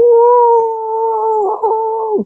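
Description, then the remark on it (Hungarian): A person mimics a grey seal's singing with one long, steady, moaning howl lasting about two seconds, loud, wavering slightly before cutting off abruptly. “A kupos fókák azok pedig, ők vokalizálnak szinte mindig, az ő vokalizációk viszont két, vagy énekelnek, úgymond, ami egy ilyen egész érdekes, ilyen”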